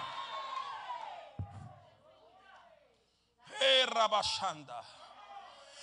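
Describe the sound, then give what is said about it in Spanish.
An audience shouts praise to the one who lives and reigns, together in loud, overlapping voices, fading briefly before a second, louder surge of many people yelling and cheering. “Falta un grito de alabanza al que vive y reina.”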